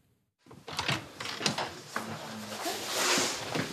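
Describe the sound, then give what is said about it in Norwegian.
A door into a room at an assisted-dying clinic in Basel, Switzerland opens with a burst of clattering and rattling, a few sharp clicks of the latch and handle over a steady rushing noise, and no one speaking. “Døren åpner seg”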